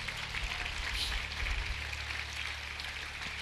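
An audience applauds in a steady, dense wash of clapping that holds evenly for a few seconds, with no one speaking over it.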